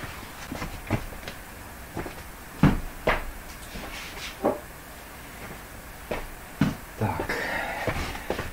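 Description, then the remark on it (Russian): Someone fetches a drinking glass: scattered sharp knocks and clacks, like a cupboard door and glassware being handled, with light rustling toward the end and no talking. “Сейчас стакан заберу.”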